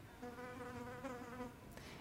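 A housefly buzzes steadily in a care-home room, its droning hum wavering slightly in pitch as it flies an endless star pattern under the ceiling in the middle of the room, with no voices present.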